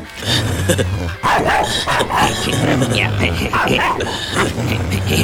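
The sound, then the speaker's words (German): A dog barks and yips in a quick series of loud bursts over several seconds, with voices and background noise mixed in throughout. “Aber ich habe einen Hund.”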